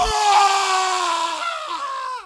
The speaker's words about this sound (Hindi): तभी उसकी नज़र पड़ी झील के किनारे कुछ चमकती हुई चीज़ पर उसने पास जाके देखा तो उसकी चीख निकल गई